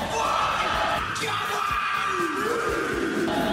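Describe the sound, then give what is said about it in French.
A group of men shout a rugby haka in unison while doing squats, a loud rhythmic chanted war cry with forceful yells and stamped accents, sustained and dense throughout, at a Rugby World Cup exhibition aboard a train. “c'est des gens qui hurlent en faisant des squats.”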